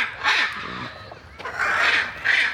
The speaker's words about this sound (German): Und die, die da gerade im Hintergrund so laut sind, das sind Aras. Ich glaube, hyanzint aras Oder das sind die ganz, ja, das sind die ganz großen.